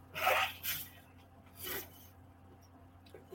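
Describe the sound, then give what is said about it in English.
Someone blows their nose in three short, breathy bursts: two quick honks close together, then a pause and a final shorter blow, with no talking. “And what I've learned, I'm sorry, y'all, I'm gonna blow my nose again.”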